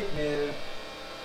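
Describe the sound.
A stand mixer's motor runs steadily in the background while mixing a half batch of ingredients, a continuous low electric hum with a faint whine. A brief voice-like tone rises over it near the start.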